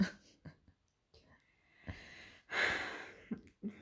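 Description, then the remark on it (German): A single goat bleat sound effect rings out loud for about half a second, surrounded by short soft clicks and breathy noises, with no talking. “Ja, aber warum Ziege?”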